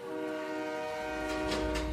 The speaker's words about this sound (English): People shout and cheer. There's almost no more room in the station. Then there's another whistle.